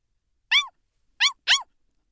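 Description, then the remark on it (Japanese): A small dog gives three short, high yips: one alone, then a quick pair after a pause. They're clear, with no talking. “へえ、かわいい犬っころだな。お前も一緒に来るか”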